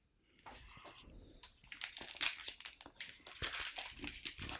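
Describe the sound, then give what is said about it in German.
Paper crinkles and rustles in dense, irregular bursts of crackling, starting quietly and growing louder and busier as the wrapping of a blue gift package holding gingerbread is pulled open, with no talking. “Knister. Knister, knister, knister.”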